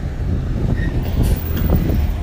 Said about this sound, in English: oh, here comes the truck again.